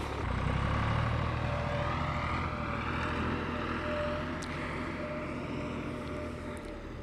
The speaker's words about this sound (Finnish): kun täällä hautausmaalla työt jatkuvat ja traktori päätti tuoda jälleen multakuorman.